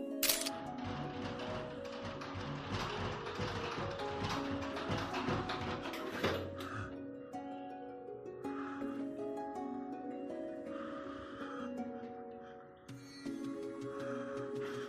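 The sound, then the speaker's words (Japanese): Loud, rapid rattling and clattering in the toilet of a private house abroad, reported as a poltergeist phenomenon, fills the first several seconds in a dense burst of knocks, then gives way to quieter, sparser rattles over a steady tonal background. “この家では心霊現象が頻繁に起こるらしく、この日はトイレでガタガタと異音が鳴り響いていたらしい。”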